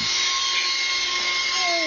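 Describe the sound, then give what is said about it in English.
A leaf blower runs steadily as a kid uses it to propel himself skating round and round, a loud, continuous motorized roar with a high whine and no pauses or voices. “This kid is swapping his hockey stick for a leaf blower.”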